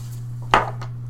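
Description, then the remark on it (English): Dice rolled for a deceive roll in a tabletop game clatter onto a hard table, landing on eight: one sharp, loud clack followed by a fainter tap a moment later, over a steady low electrical hum, with no voices. “Roll me a deceive roll.”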